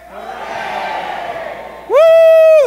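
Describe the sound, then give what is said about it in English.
A crowd at an ACB convention cheers in a loose, sustained roar, then one loud drawn-out shout of "hooray" rises sharply and holds at a steady pitch before cutting off. “Hip, hip. Hooray. Hip, hip. Hooray.”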